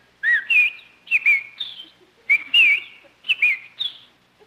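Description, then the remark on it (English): A person whistles an imitation of bird chirps: several quick, bright warbling phrases in bursts, with short pauses between them and no talking. “look at that beautiful bird on your lawn. Ah, oh, look, he's hopping over to us. Come on, Birdie.”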